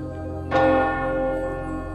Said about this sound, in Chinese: 以下每当像这样钟声响起的时候，有二十秒的时间内，便是你要放宽胸怀，心甘情愿。 毫不忍耐的时刻。